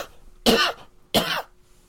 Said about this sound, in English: You have to clear your throat for this. It's supposed to be a big one.